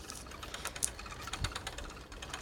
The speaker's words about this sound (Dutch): Oké dan, ik ben nu op mijn fiets, je hoort het.